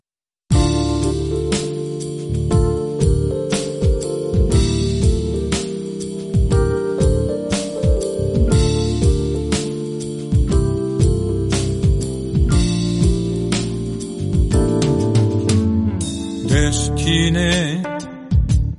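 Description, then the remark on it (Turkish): A requested song by a male singer, sung in French, plays loud and continuous from start to finish, with a steady rhythmic accompaniment of sharp plucked or struck notes over sustained tones, with no talking over it. “Şimdi onun için isteğini çalıyoruz.”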